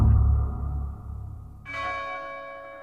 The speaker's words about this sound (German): Ein Glockenton. Fröhlich beschwingt. Eine Glocke, die das Herz erbeben ließ.